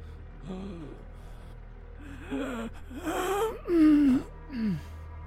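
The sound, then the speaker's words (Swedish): A person surfacing from water with no oxygen left in the lungs gasps and heaves for breath, a series of ragged, strained, painful inhalations that grow louder and more desperate, with no talking. “Ni kommer upp på ytan så här. Det har liksom ingen syre kvar i lungorna då. Det gör ont att andas och drar in.”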